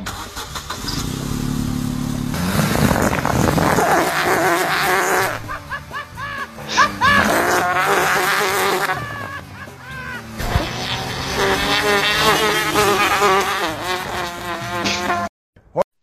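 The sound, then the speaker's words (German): An old Opel car's engine starts and runs, its exhaust pipe blowing into an extra-large bicycle inner tube made of two tubes glued together, with loud, sputtering, flapping exhaust noises rising and falling in bursts for about fifteen seconds before cutting off abruptly. “Und zwar habe ich diesmal einen XXXXL Fahrradschlauch rangemacht. Das sind zwei Fahrradschläuche, die ich einander zugeklebt habe. Mal gucken, was passieren wird. Ich mach den Motor jetzt an.”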